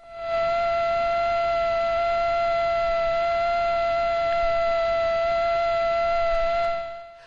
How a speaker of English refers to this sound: That's a, that is a male mosquito buzzing its wings at something like 600 hertz, 600 times a second. Have a listen to the female mosquito, and these are Aedes aegypti mosquitoes.